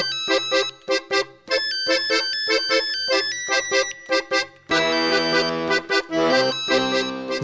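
A bright electronic mobile phone ringtone melody: choppy staccato notes in a bouncy rhythm, then a fuller, sustained stretch of layered tones, with no voices.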